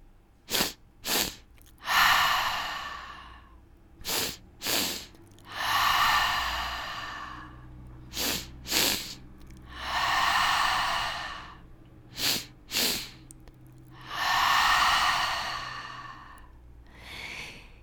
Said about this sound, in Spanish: Para seguir con esta meditación, vamos a usar una respiración activa en la que vas a inhalar en dos partes, primero dirigiendo el aire hacia tu abdomen bajo después hacia tu pecho y exhalaremos con la boca abierta, de esta manera.